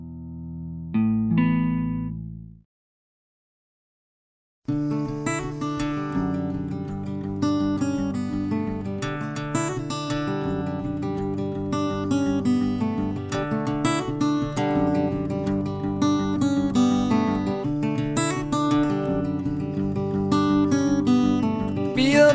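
A brief sustained tone sounds, then a short silence, before a song starts up and plays steadily at full, even volume with rich, layered instrumentation.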